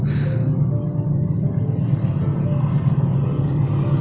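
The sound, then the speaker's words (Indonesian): A heavy, continuous low rumble of a passing train, steady and loud throughout, with a brief hiss at the start and no voices. “ya itu adalah suara kereta guys”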